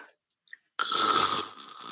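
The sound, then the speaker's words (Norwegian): A person imitates a loud, raspy snore in one long drawn-out inhalation lasting about a second, trailing into a softer rough breath, preceded by a couple of faint brief noises. “Du kan jo klare å lage en snorkelyd nå, mm. som et eksempel.”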